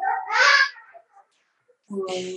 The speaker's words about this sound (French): Ah, mon garçon, il pleure.